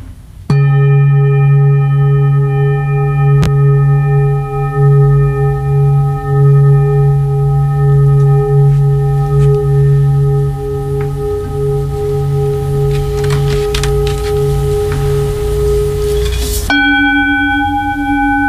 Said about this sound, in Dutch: je hebt ook nog een klankschaal of, of, twee klankschalen. Hè? Eh, dat wordt ja, wel eens vaker gebruikt. Mensen kennen dat. Wat wil je daarmee bereiken of, of nabootsen? Ik ga het je laten horen.